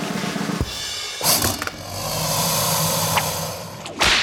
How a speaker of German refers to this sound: Keine Angst. Das ist nur Mysteria. Meine Peitsche.